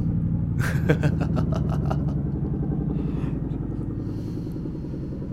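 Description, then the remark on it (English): A low helicopter thunders overhead, its deep rotor chop pulsing steadily as a loud, continuous rumble fills the whole stretch, causing vibrations. “Shout out to the helicopter again. Yep. This one's a bit. This one's a bit lower.”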